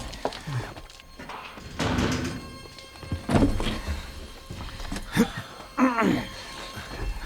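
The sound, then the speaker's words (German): The sliding door of a van shuts with a series of dull, heavy thunks spread over several seconds, punctuated by a brief creaking moan near the end, with no voices. “Und nun schließt die Tür.”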